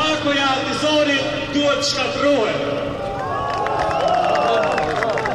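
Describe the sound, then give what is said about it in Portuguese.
A loud, dense crowd of protesters at a rally over the future of Kosovo, destroying a caricature of the UN envoy's plan; many voices shouting and calling out together in a steady roar with no pauses, busy throughout. “Os manifestantes destroem depois uma caricatura do plano do enviado da ONU para as negociações sobre o futuro do Kosovo.”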